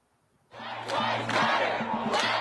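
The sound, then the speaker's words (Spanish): Thousands of protesters in Washington defying the curfew at night, arms raised, shouting together against police racism, 'Black lives matter' and 'don't shoot'; starting abruptly after a brief quiet moment, then a sustained loud, dense roar of many voices with rising chant-like surges. “Miles de manifestantes han vuelto a desafiar una noche más el toque de queda en Washington.”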